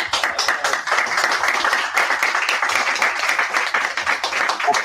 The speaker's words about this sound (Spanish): Un aplauso para ti.